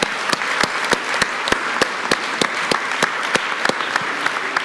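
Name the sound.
audience applause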